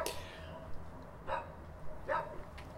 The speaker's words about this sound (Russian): Ну, э, здесь то же самое, то есть вывеска «ну что вы, собачки, ну дайте мне, пожалуйста, закончить подкаст». Спасибо большое.